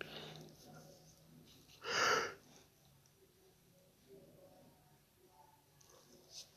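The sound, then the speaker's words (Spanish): A single small yawn, a brief breathy exhale, with faint background noise. “Ay, perdón, un pequeño bostezo.”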